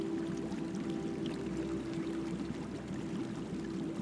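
sound effect, rushing

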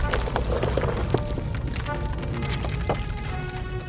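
sound effect, spaceship crash landing

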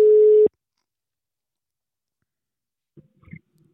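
signal or alarm, telephone call tone

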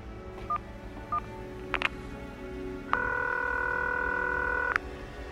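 signal or alarm, phone keypad dialing tones

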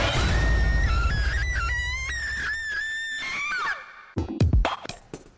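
sound effect, scream sound effect

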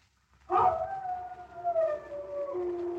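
animal, dog howling

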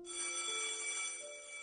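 signal or alarm, school class bell ringing

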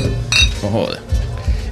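household object, glasses clinking

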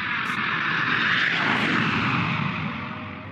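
vehicle, airplane flying

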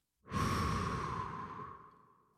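human body sound, slow breathing

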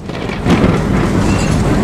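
nature, thunderclap

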